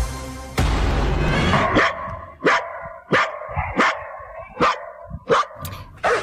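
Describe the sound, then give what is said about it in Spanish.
A female dog named Patsy, a six-year-old that has spent her whole life herding flocks of sheep, barks repeatedly during the story of her rescue: about seven or eight sharp, fairly loud barks at a steady rhythm, following a brief burst of rushing noise at the start. “Bueno, pues nuestra historia sonora de hoy tiene que ver con un rescate de eh, una perrita que se llama Patsy, una perrita de seis años que pues se ha dedicado dedicado toda su vida a pastorear rebaños de ovejas”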